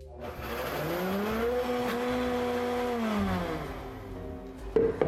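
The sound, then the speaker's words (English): A blender whirs steadily for about four seconds, its motor pitch rising and then sliding back down as it blitzes a thick tahini sauce with lemon juice and reserved pasta cooking water, before cutting off with a couple of brief clunks. “Now let's blitz it all up.”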